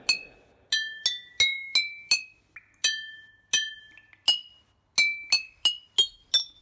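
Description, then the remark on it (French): A spoon taps a row of glass bottles about fifteen times, each strike ringing out at a different pitch so the clinks form a simple melody, clear with no talking. “Regardez, si je prends une cuillère, écoutez ce que je peux faire.”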